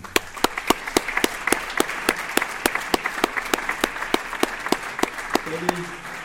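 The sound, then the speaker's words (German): Steady applause from an audience at an award ceremony for second place among the 2022 women trail runners, with many overlapping hand claps plus a run of louder, evenly spaced individual claps cutting through throughout. A brief low tone surfaces near the end. “der Applaus ist da, aber Ida leider nicht.”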